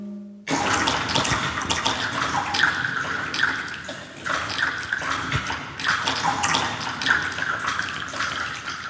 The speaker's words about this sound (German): Auch so können acht Saxophone klingen.